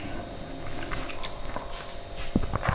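A male cat playing with some object, making scattered soft knocks, scuffs and taps at an irregular pace, with a few sharper clicks toward the end over a low, steady hum of a refrigerator.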